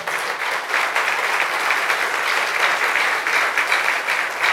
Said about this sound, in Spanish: Fuerte ese aplauso al Señor.